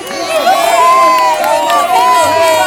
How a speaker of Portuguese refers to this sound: A rainha Thalia estava no palácio e ouviu as comemorações do povo.